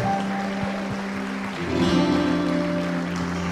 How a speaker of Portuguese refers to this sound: Você pode aplaudir a Jesus essa manhã? Aleluia.